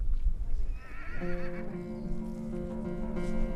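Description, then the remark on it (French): A Przewalski's horse, from a herd reintroduced to the wild in Lozère, gives a single long, loud neigh, starting with a quavering high whinny and settling into a sustained lower call, over a low outdoor rumble with no voices. “notre regard et notre écoute se portent toujours loin sur les chevaux de Przewalski, une espèce fascinante d'équidés introduite à l'état sauvage depuis 30 ans par l'association TAC dans ce bout de Lozère”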